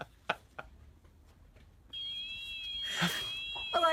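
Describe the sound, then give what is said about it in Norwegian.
After a couple of soft knocks, a lawnmower's alarm starts up after a moose damages the mower, in an NRK Nordland video, and keeps sounding to the end as a steady, shrill electronic tone with a slight warble. “Alarmen på klipperen går.”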